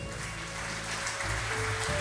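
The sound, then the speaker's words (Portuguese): A crowd at a worship service claps steadily for God in a dense, continuous wash of applause, with sustained musical tones, like a keyboard or organ, playing underneath throughout. “Vamos aplaudir nosso Deus.”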